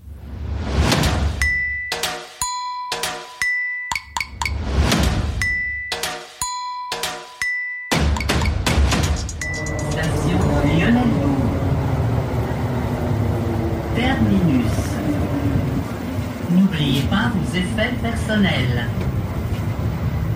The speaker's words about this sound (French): Merci d'avoir voyagé avec la SPM. Bienvenue dans le métro de Montréal. Il est super d'ailleurs le métro de Montréal. Euh, très propre, euh, beaucoup plus beau que celui de New York aussi, qui est quand même un peu pourri, il faut bien le dire.